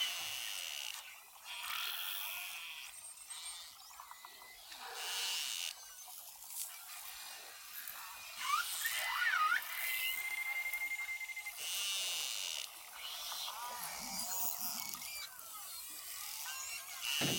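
Beluga whale vocalizations: a dense, hissing wash of rapid clicks and buzzing pulses, with a few high, squeaky whistles and chirps that rise and bend partway through. It carries on steadily, with no talking.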